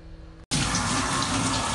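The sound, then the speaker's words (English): A steady rush of running shower water, with a person in the shower, starts abruptly after a brief hum and a moment of silence, then continues loud with no one speaking. “I'm in the shower. I thought I'd share with you guys my shower routine.”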